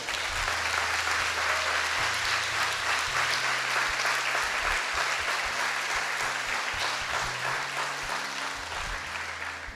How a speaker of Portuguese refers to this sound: Amém? Pode dar um salve de palmas para Jesus, amado.